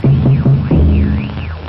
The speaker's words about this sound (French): utilisé par la BBC pour annoncer les émissions clandestines. Dès que les auditeurs entendent les quatre coups de timbales, trois brefs, et un long, ils reconnaissent le début de la cinquième de Beethoven ou, en langue morse, la lettre V de victoire.